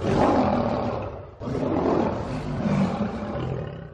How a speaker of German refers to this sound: Gut gebrüllt, Löwe.